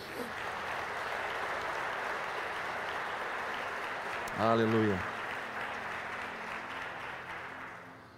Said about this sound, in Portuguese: Aleluia. Aplauda o Senhor aí no seu lugar.